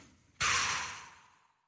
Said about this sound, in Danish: Skal vi lige prøve at tage... Øh lige at lige tage en, en hurtig vejrtrækning. Lige godt med luft ned i maven. Igennem næsen, og så ud.